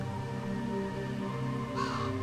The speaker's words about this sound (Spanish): ante un silencio que se interrumpe de vez en cuando por ráfagas de viento helado y el sonido de algún animal que pareciera ser algún graznido, de algún cuervo creo yo, o al menos es lo que me imagino.